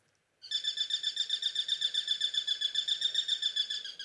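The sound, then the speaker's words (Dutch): A Eurasian sparrowhawk, a small bird of prey, gives a rapid, high-pitched piping call, a steady run of about twenty shrill notes repeated evenly for several seconds, clear with no other sounds. “Voilà, typisch hoog gepiep van een roofvogeltje, een sperwer.”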